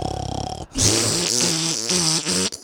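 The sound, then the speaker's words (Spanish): A voice imitates snoring: a low, buzzing rattle followed by a loud, raspy, drawn-out snort with a wavering pitch lasting about two seconds, no other talking. “Ya te dan un codazo en la noche tu esposa, en las puras costillas, porque estás roncando y estás...”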